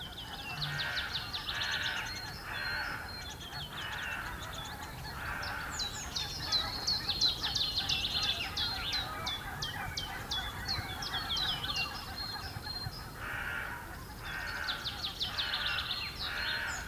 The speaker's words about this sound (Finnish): Ja sitten hyvin pian siinä neljän jälkeen niin oli sitten jo tiltaltti äänessä. Et sehän tuossa tiputteli ihan lähellä komeasti. Se saatiin hienosti talteen se ääni.